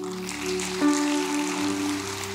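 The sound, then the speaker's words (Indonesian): An audience applauds with a steady, dense patter of many hands clapping, over sustained low keyboard chords that hold throughout. No one speaks. “Berikan tepuk tangan.”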